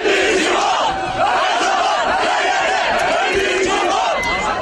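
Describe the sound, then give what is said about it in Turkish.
About 500 Galatasaray football fans in Kastamonu, Turkey, chant loudly and continuously in unison in support of their team, a dense wall of voices with rising and falling melodic calls, sustained at full volume throughout. “Yaklaşık 500 taraftar tezahüratlarla takımlarına destek verdi.”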